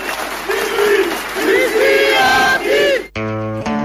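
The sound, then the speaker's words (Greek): A large crowd below the speaker roars, cheers and applauds loudly, voices rising and falling in repeated chant-like swells for about three seconds before cutting off abruptly into a different, steadier sound. “Αν χρειαστεί λοιπόν, γινόμαστε και εφηγόδικοι με πάθος, χειροκροτήματα από κάτω”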